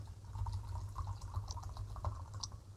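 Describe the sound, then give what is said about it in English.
Diet ginger ale poured into a glass, a soft steady stream with scattered crackles of fizz popping over a low background hum, quiet and without any voices. “Pour, what you pouring over there, my guy? Just uh, you know, some diet ginger ale, bro.”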